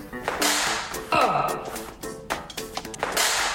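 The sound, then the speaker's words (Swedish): Several sharp, fast swishing swipes and slaps, irregularly spaced, a hand flailing and swatting through the air at a mosquito, trying to kill it, with some faint vocal sounds mixed in. “Fan, jag fick inte den igen. Vänta, jag ska döda den här jäveln.”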